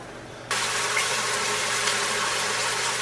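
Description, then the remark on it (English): After a brief quiet moment, a steady hiss of ground meat, onions, mushrooms and peppers sizzling in olive oil in a hot pan sets in and holds, fairly loud, as the mixture is stirred, flipped and broken up with a spoon; no voices. “It's starting to sizzle.”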